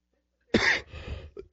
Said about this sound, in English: excuse my cough, by the way. I have a nagging cough that won't go away. I am not contagious nor positive of anything. I'm just getting over whatever I've had for the last couple of weeks.